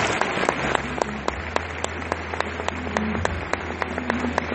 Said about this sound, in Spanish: Les pido de realmente un fuerte aplauso para la mesa nacional de diamantes.